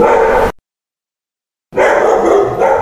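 Loud, sharp dog barking in dense bursts, cut by just over a second of total silence before another stretch of steady barking resumes. No one speaks.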